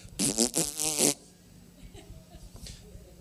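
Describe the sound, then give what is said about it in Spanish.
A Minions toy pistol lets out a loud, buzzy electronic burst lasting about a second, with a warbling, raspy tone, followed by quiet background noise. “Y mi esposa se la compró en Miami y dijo, mira qué linda hace ruido y le gustó, pues que...”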